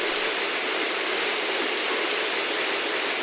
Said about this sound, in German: Das ist ein typischer, ordentlicher gießender Regen. Draußen.